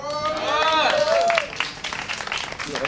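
An audience claps steadily and densely throughout, with a rising, swooping cheer or whoop from the crowd early on, all fairly loud.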